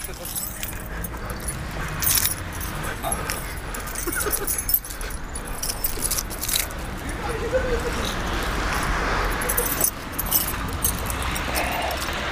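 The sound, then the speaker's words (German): A bunch of three keys on a lanyard keyring jangles in repeated bright, metallic shaking bursts as someone goes to try which key fits an entrance door, rattling on and off throughout with brief pauses between. “So, ich habe einen Schlüsselbund mit so einem Schlüsselband dran, drei Schlüssel.”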